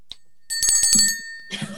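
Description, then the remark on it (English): A small hand bell rings out to signal that a forecast discussion has run too long and should move on, a bright metallic chime struck a few times in quick succession, its tone lingering before another jangle near the end. No one speaks. “I will ring the bell indicating that we cannot have the forecast be as long as the period that we are forecasting for, and that we should move on to the next month.”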